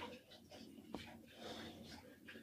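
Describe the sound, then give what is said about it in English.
Soft, wet licking and snuffling noises from two dogs indoors, with quiet breathy snorts and a sharp little click partway through, all fairly low in level. “there are dogs in here right now who are being noisy and licking and things.”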